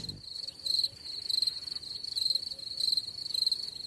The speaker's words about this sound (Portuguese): Agora deu um silêncio com o jogo. Mete um grilo aí na edição.